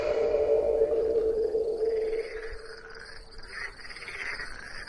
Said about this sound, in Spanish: Cae la noche. Los sonidos cambian. Se escuchan los cantos de los grillos, las ranas y...